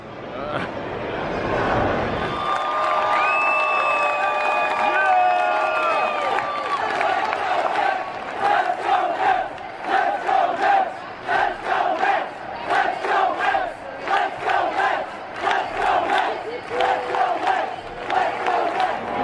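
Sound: stadium crowd chanting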